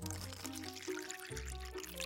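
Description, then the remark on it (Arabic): Cold water from the refrigerator pours steadily into a glass for about two seconds, a continuous gurgling stream whose tone rises as the glass fills. No one speaks. “تفتح الثلاجة لتشرب ماء باردا”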